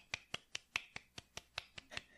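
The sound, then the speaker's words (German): Soft, steady hand clapping, about a dozen light claps in an even quick rhythm, fairly quiet, with no voices over it. “Aber nur ein bisschen Applaus, nur so ein bisschen.”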